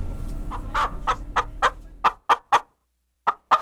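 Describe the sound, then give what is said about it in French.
A chicken clucks near a henhouse in a quick run of about ten short, sharp notes, pauses briefly, then adds two more clucks, with a faint low rumble under the start and no talking. “je suis allée près du poulailler pour voir s'il y en avait”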